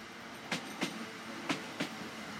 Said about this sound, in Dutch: De laatste trein komt aan in Beervelde.